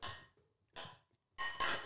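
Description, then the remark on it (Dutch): Glasses clink together several times in quick succession as people toast after pouring drinks, bright ringing taps that decay briefly between them, fairly loud with no talking. “Jongens, we hebben ingeschonken. Proost. Proost”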